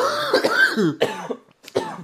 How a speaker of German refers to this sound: Äh, geil, dass wir auch synchron husten. Oder hältst du deinen Husten immer ich zurück? Halt, ich halte den wirklich zurück, bis du hustest, dass ich dann auch husten kann.